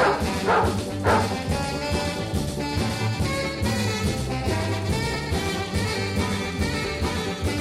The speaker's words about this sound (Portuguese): Peraí, aí que o cachorro, inferno de cachorro, Peraí.